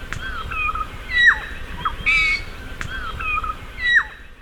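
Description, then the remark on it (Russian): A regent honeyeater, an Australian bird, mimics a noisy friarbird, giving a string of harsh, raspy, crow-like calls in short bursts about a second apart, clear, with no talking. “А тут как крикливый Филимон”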